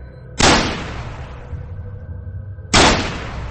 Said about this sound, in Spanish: Le metió dos tiros en el entrecejo cuando atravesaba un callejón estrecho.